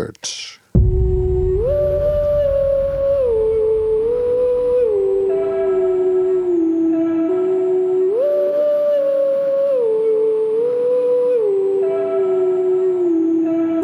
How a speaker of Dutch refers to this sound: We gaan luisteren naar een nummer van zijn nieuwe plaat. Die is, is, volgens mij echt nog maar twee maanden, maanden oud.